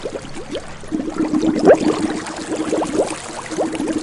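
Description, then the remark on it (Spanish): Water gurgles and splashes continuously, like a river flowing past, with bubbly rising trickles and a steady churning wash throughout, moderately loud, with no voices. “E al oír esta respuesta, sin dudarlo más, lo lanzó con rabia contra el río el cangrejo. Despacito, se sumergió en el fondo mientras crecía enormemente de tamaño.”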